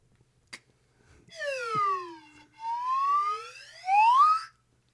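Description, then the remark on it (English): A slide whistle is played live alone: a loud tone sweeps downward, then glides back up in two rising swoops, ending on a high, bright pitch. A single click comes just before it. “I haven't got to play my live swi- slide whistle Indeed.”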